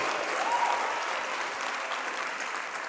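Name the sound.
audience applause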